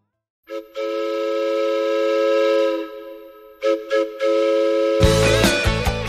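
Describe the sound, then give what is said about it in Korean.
A loud, sustained train whistle blows for a few seconds, followed by two short toots. A chugging running-train sound effect then starts up, full, marking the start of a Chuseok special 'Trot Train' radio segment. “추석 특집 트로트 열차 노래 선물 싣고 애청자 여러분 곁으로 달려갑니다. 뿌뿌!”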